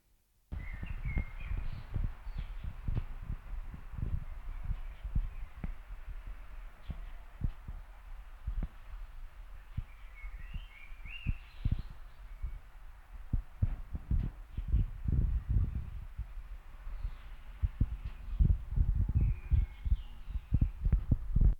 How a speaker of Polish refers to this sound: W związku z czym nagranie jest tylko na lewym kanale. Przez chwilę nic nie będę mówił, żeby można było zidentyfikować szum. A i to nagranie jest bez systemu Dolby.